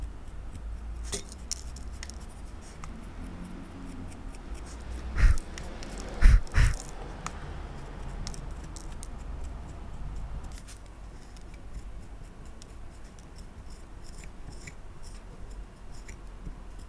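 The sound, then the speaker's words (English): Soft scraping and cutting sounds of a tool carving through wet clay taken from a river, with scattered faint ticks and a few louder sharp scrapes midway, no voices. “You can hear how easily it's carved out, and then like when you're carving against something dry.”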